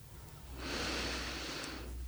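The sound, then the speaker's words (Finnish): A single deep breath, drawn in as a long, airy rush lasting just over a second, standing alone with no talking around it. “Eli muistakaa makoilla alas sängyssä, muistakaa hengittää.”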